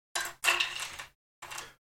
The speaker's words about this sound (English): all right shall i roll the dice one more indeed i mean i'm rolling a die but i'm just gonna call it dice